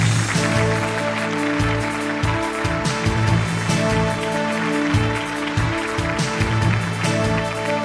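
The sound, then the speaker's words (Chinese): Steady audience applause welcoming two guests onto the stage fills the whole clip, a dense crackling wash of many hands clapping at once, loud and even throughout, with a faint musical tone sustained underneath. “我们掌声有请两位倾诉人上场，有请。”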